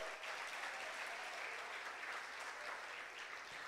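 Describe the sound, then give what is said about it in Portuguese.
A crowd applauds the Lord steadily, many hands clapping together in a dense, sustained wash of sound that holds at an even level throughout, with a few faint voices mixed in. “Aplauda o Senhor, ele nos escolheu.”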